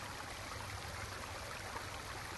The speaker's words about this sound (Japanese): 川の水は手がしびれるほど冷たい